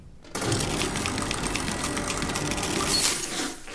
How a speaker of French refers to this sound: Dans l'atelier costume, la broyeuse à confetti se met en marche toute seule, sans qu'on ait glissé d'habit entre ses mâchoires d'acier.